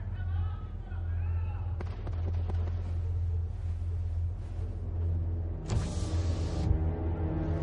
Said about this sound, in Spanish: El copiloto baja su ventanilla.